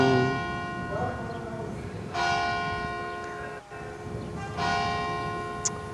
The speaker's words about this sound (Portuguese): Opa, o sino é lindo. Às 11h30 toco outra vez. O sino é, é este aqui, ao pé da minha casa, não é? Eu sei, sim, é lindo, adoro.